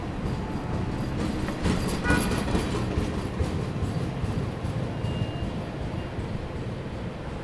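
A train rumbles steadily along the rails, fairly loud, with a burst of metallic clatter early on before settling back into a continuous low roar. No one speaks.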